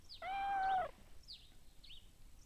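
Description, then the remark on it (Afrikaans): A single drawn-out meow from a cat sitting at a back door wanting to come in, plaintive and mournful, clear, followed by a few faint high bird chirps in the background. “Die arme dier kyk na hulle en sy miau hartseer.”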